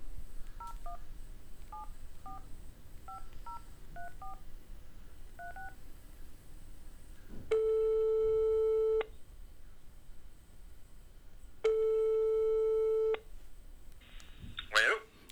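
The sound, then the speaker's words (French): A telephone number is dialed as a quick series of short electronic beeps, then two long, steady ringing tones sound with a pause between them, ending in a brief click as the call connects. “Voilà, on va l'appeler au téléphone et puis euh, il va nous dire, euh, va nous dire là ce que lui, il sait de la durée de vie des abeilles.”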